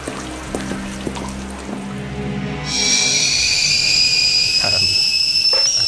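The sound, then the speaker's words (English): Boiling water is poured steadily into a cup for tea, a bright continuous splashing fill that starts partway through after a quieter stretch with a low background hum. “The first part of the ordeal of the key is the nice cup of tea.”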